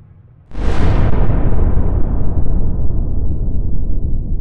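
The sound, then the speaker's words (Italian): An airplane crashes: a sudden, massive explosion bursts about half a second in, then a heavy, low rumbling roar that slowly fades but stays loud for several seconds. “Che schianto.”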